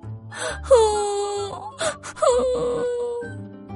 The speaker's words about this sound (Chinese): 虽然这个声音很低，但是热风还是听到了。它吹开了层层叠叠的叶子，找到了哭声的来源。小叶子啊，你怎么哭了？